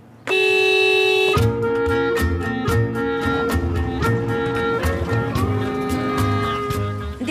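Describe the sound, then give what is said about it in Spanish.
A loud car horn blares in a long, steady blast, followed by several seconds of continued honking pulses over a busy, noisy background. “¿Puede pitar? ¿Cómo? Toque el claxon.”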